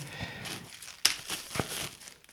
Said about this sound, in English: I just remembered I've got a pretty good portable recorder right next to me, and I'm gonna go out right now. Let's just take it out the thing and put the batteries in